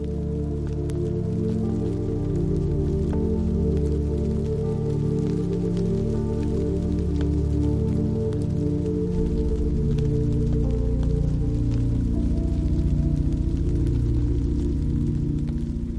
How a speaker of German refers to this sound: Plötzlich spürst du die ersten zarten Regentropfen auf deiner Haut. Sie sind warm und sanft, wie ein erfrischender Kuss des Himmels.